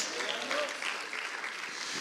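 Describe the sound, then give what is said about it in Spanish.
An audience claps for the Lord steadily for about two seconds, a dense, even wash of many hands at constant loudness, with scattered voices calling out faintly underneath. “¿Le da palmas a usted al Señor?”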